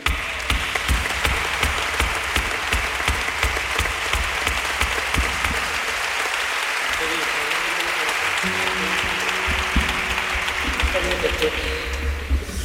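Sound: audience applause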